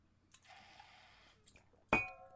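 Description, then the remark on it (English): A quiet sip of water, a soft airy slurp lasting about a second, followed by the clear clink of a glass being set down with a short ringing tone. “I'm going to just take a sip of water here and I'll read it for you.”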